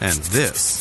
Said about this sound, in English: is the sound of summer skin being scratched because of the itching and irritation of what the season can bring.